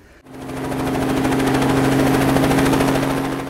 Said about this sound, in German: Ein Hubschrauber holt mich auf dem Hochplateau ab und eine halbe Stunde dauert der Flug zurück an die Küste. Der Pilot fliegt über den tiefgrünen Regenwald und erreicht die von Landwirtschaft geprägte Küstenebene.